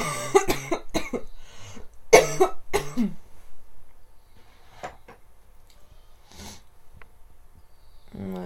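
coughing

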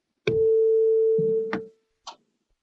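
struck tuning

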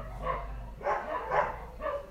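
dogs barking

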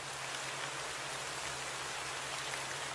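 rain falling

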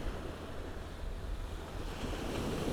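sea waves

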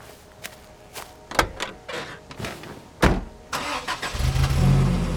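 car driving

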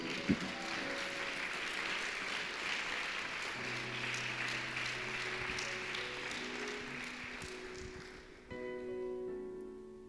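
audience applauding

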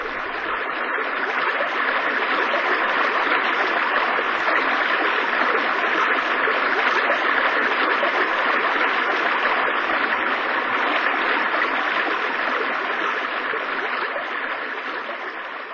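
roar of a waterfall

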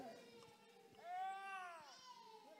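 baby crying

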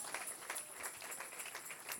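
audience applauding and cheering

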